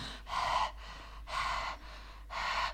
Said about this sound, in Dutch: Zit ik zo te ademen, omdat het gewoon niet zachter kan.